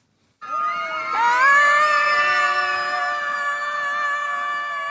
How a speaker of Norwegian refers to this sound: Slik hørtes det ut da barn og voksne skrek av full hals i det som trolig var verdens første skriktog i Løten i går kveld.